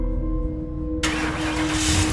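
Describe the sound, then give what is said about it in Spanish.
A car engine turns over and catches, a low steady rumble that abruptly swells into a loud, rough roar about halfway through, with no voices. “Nos subimos al auto, lo encendí y lo puse en marcha.”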